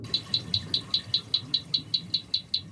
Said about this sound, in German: Das Ticken steht für das beständige Hämmern, um den Pfahl in den Boden zu rammen. Wenn die Luftblasen entstehen, wird es deutlich leiser.